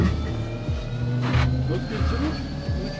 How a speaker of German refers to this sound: Das Flugzeug ist an. Ich glaube, jetzt so. geht's los.